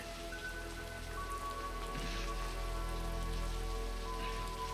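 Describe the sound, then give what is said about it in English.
Steady rain falls on rooftops as Deckard and Roy fight there, a dense continuous patter that stays even throughout, with a faint low hum sustained underneath and no voices. “Then Deckard and Roy fight on the rooftops in the rain, with Roy even saving Deckard's life once before delivering a moving monologue and succumbing to his expiration date.”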